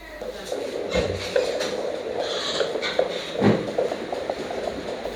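An ultrasound scan of a pregnant young girl's belly plays a steady, noisy whoosh with soft rhythmic pulses and scraping shuffles, moderately loud, with no voices.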